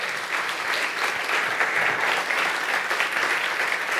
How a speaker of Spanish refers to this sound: ¿Cuántos dicen amén? ¿Cuántos dicen amén? Dele fuerte ese aplauso al Señor.